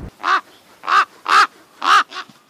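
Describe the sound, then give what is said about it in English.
A raven caws five times in a steady series of harsh, raspy calls, the last two coming closer together. The calls are loud, with no talking. “Did you send the ravens?”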